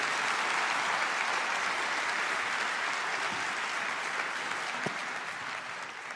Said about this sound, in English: Let's give him a big old hand, can we? Thank you guys.